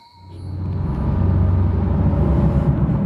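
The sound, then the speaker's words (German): An off-road vehicle's engine drones steadily with heavy low rumble, loud, heard from inside the car, with rattling and uneven jolts as it drives a rough, bumpy track with deep holes and steep climbs and descents, heading to an area of coffee farmers. “und wir fahren in seinem Auto jetzt zu einem Gebiet, wo die Kaffeefarmer sind.”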